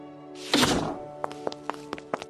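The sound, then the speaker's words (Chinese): A main door, slammed by an angry mouse in a story, shuts with a heavy, booming thud, followed by a quick run of lighter, sharp taps spaced at irregular intervals. No one speaks. “老鼠愤怒极了，砰的一声关上大门，朝法院奔去。”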